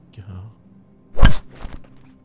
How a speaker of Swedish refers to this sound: Ljudet av en flaska som faller i gatan och krossas kan höras och ännu en kropp börjar släpas in i mörkret.